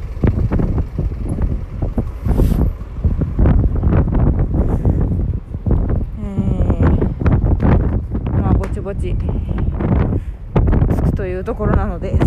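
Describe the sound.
Strong wind buffets the microphone in a constant, loud low rumble across the whole recording, outdoors in Asakusa, with a person's voice speaking intermittently beneath the roar.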